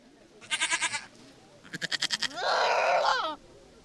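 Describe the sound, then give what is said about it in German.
Goats, about two dozen tethered in the grass, bleat three times in quick succession, each call a loud, quavering, nasal cry, the last one longer and steadier, with no talking underneath. “Noch stehen die etwa zwei Dutzend Ziegen, die heute verteilt werden, angebunden im Gras.”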